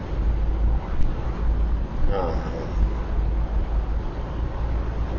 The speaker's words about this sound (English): I'm uh, traveling in the car as usual